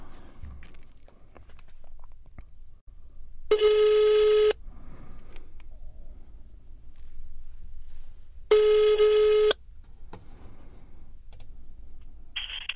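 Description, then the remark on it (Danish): An outgoing telephone call to a locksmith specializing in safes on Nørrebrogade rings twice, each steady one-second ringback tone separated by about four seconds of quiet line, with faint clicks and background noise between them. “Nu ringer vi altså op til Mejlhede Låse ude på Nørrebrogade.”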